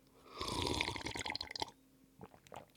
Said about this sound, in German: Ich werde nochmal einen ganz kleinen Schluck.